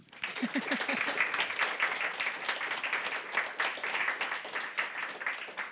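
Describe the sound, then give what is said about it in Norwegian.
Sustained audience applause at a lecture at the Bergen International Literature Festival, many hands clapping in a dense, steady patter at an even loudness for several seconds, with a brief voice or cheer near the start. “La oss gi henne en stor applaus.”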